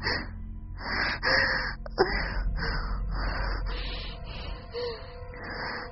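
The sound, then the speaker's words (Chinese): Heavy, rapid breathing: a steady run of about nine loud, breathy gasps and exhalations in quick succession, with no speech, each breath rough and slightly wheezy. “这时候，我呼吸变急促了，喘息声明显的增大。”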